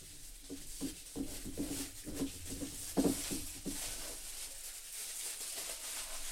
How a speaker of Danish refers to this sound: har flået alufolien, som vi selvfølgelig nok skal øh, genanvende på en fornuftig måde, øh, af den her flaske. Og øh, det viser sig at være en 2019 fra Dr. Pauli Bergweiler, som jo faktisk er et hus i Mosel